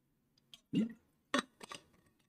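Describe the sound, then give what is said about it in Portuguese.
A soft swallow of water as someone drinks, then a few bright clinks and knocks as a glass is handled and set down, with quiet background between sounds and no talking. “beber uma água.”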